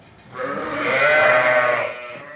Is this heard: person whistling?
no